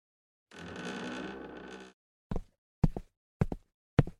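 The front door of a home opens with a sustained scraping rush of noise, then four firm footsteps follow at a steady, unhurried pace as someone steps inside after school. There is no talking.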